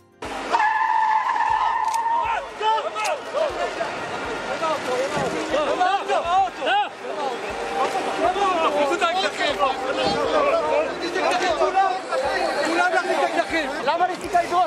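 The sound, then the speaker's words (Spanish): A car's tires screech in a sharp skid at the start as the vehicle drives straight toward protesters and police barriers, followed by a loud, agitated crowd of protesters shouting and yelling over continuous engine and street noise. “El sonido de los primeros segundos de este incidente”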